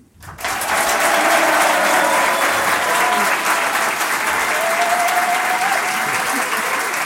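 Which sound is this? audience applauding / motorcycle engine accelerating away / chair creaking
audience applauding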